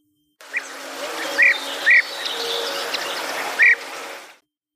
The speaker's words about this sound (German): Tja, und diesen Vogel kannte von uns auch niemand, bevor wir das Buch gelesen haben. Es ist ein Bienenfresser. Das ist ein knallbunter kleiner Vogel, der in Europa und vor der Asien lebt.